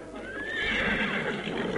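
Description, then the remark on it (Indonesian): A horse whinnies loudly, a drawn-out quavering neigh over a steady bed of noise, with hooves faintly clip-clopping underneath. No one speaks. “Pelan-pelan Arya Dwi Pangga menghampiri kudanya.”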